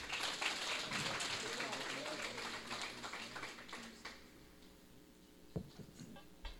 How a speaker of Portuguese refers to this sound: Apóstolo, muito obrigado. obrigado. Dá um aplauso para o apóstolo.